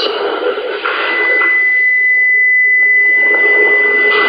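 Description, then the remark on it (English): A steady electronic hum and hiss with a sustained high tone running throughout, like a buzzing amplifier or radio static, fairly loud and continuous with slight wavering. “Sounds like an amplifier.”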